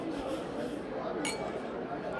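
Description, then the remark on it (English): A single bright clink of glasses rings out amid a steady murmur of crowd chatter, like a quick toast. “That's nothing to cheers to.”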